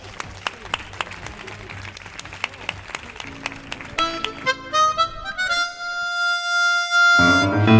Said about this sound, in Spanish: Un aplauso para ella.